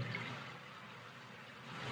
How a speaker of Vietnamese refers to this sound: tiếng sóng vỗ rồi tiếng sóng vỗ cái đây là nhạc thiền inner thought